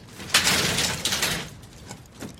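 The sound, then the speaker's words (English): A heavy elevator door slides open with a broad, hissing scrape lasting about a second, then fades into softer mechanical rattles and a faint clunk. No voices are present. “We need to try to pry this door open or something.”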